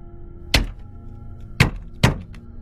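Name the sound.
knocking on a window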